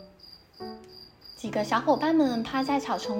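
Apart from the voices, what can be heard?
crickets chirping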